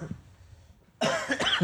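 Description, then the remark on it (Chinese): After a quiet second, a burst of loud, raspy coughing breaks out, several quick hacks run together as someone coughs from laughing. “我笑到咳嗽”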